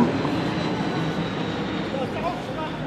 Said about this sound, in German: Oh, hier. Ein Flugzeug. Ein Flugzeug.